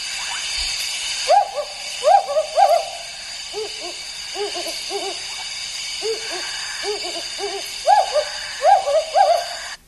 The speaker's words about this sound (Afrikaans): En dan miskien net nog een by wat ons meer bekend is, die van ons wat rye tuine het, is natuurlik die bosuil of die wouduil, een van my gunsteling uile wat so klink.